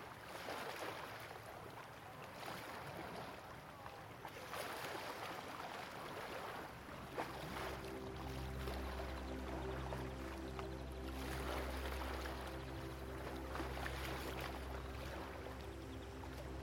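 Gentle lake waves lap and splash softly and continuously; about halfway through, a low, steady boat-engine drone rises underneath the water sounds. No one speaks.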